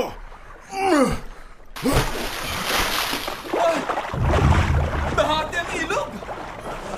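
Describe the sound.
After a brief vocal sound, a cloak is struck heavily onto the water of the Jordan River, breaking into a loud, sustained rush of surging water as the river parts, with faint voices underneath.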